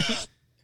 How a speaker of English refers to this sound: oh, he said, "Bruh." I didn't know what that sound was.